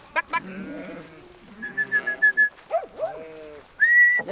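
Several sheep bleat in overlapping, wavering calls as they are moved aside with dogs, while sharp, steady whistle blasts, like a herder's signals, cut in twice over the flock.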